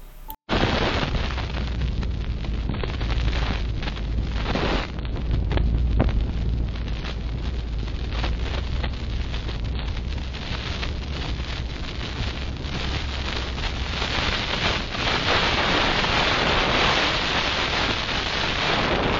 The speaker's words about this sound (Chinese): 后面这一段就是我们实际在路上真正的噪音，其实它的风切声其实非常非常的大声。